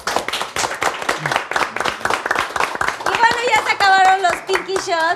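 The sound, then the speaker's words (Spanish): A burst of applause from a group, with dense, irregular clapping throughout; partway through, voices rise over it with excited, high-pitched cheering while the clapping continues. “Entonces quería como compartir esta cosa y para mí sí es de un aplauso, porque mi papá ya está en el cielo y sí aplaudo mucho que los papás”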